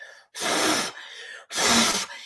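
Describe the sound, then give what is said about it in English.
Two long, forceful puffs of breath blown out close to the mic, each lasting about half a second with a short pause between, like someone blowing to cool something down. “And you have to blow”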